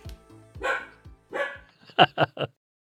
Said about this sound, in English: Plenty of uh, anecdotes, and uh, I'm going to hand over before the dog drowns me out with the barking.